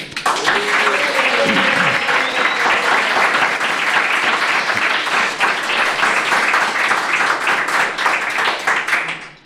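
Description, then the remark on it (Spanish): Sustained applause from an audience fills the whole stretch, a dense, steady wash of many hands clapping at even loudness, with a few brief voices or cheers poking through near the start. “yo creo que te mereces un aplauso más largo todavía.”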